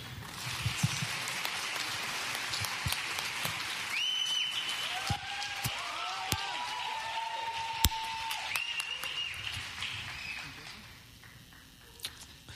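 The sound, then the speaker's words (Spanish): A crowd applauds steadily for several seconds, a dense crackle of many hands clapping at an even level, with a few sharp louder claps and faint tonal sounds under the noise before it tapers off. “Denles un fuerte aplauso.”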